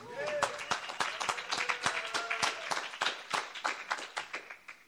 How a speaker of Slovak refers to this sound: vždy zaznie potlesk. To je, to je úžasné.